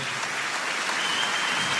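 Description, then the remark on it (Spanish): An audience claps steadily for a couple of seconds, a dense, even patter of many hands at moderate volume with no voices over it, swelling slightly at the very end. “Alguien tiene que aplaudir más que eso.”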